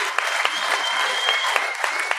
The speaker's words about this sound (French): Hey, je sais pas si vous le savez, vos applaudissements, ça se rend même pas à un dixième de dans le temps, puis ils se crissaient du monde de dans le temps.